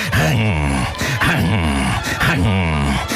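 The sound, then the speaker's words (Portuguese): A voice imitates laboured, wheezing breathing, the way they could not stop breathing for five minutes after an incident: three loud, strained, groaning breaths in a steady rhythm, each pitched and rasping, with a brief gap between them. “Durante 5 minutos, depois deste acontecimento, eu não conseguia respirar sem fazer”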